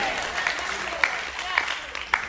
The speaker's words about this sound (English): salute, a standing ovation.